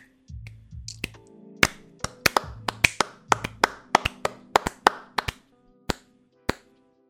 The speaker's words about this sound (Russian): Это было настолько плохо, что просто аплодирую. Даже стоя бы поаплодировал, но я не в штанах.